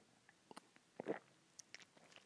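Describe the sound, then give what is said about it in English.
A sip from a drink: soft wet mouth clicks, then a brief slurping gulp in the middle, followed by a few more faint lip and swallow sounds, with no talking. “one more for the sip sorry”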